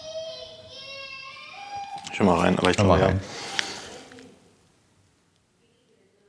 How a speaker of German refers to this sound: rennt gerade natürlich ein weinendes Baby an der Tür vorbei. Da wollen, wollen wir das ignorieren? Ich glaube, das hören jetzt aber alle auch, ne?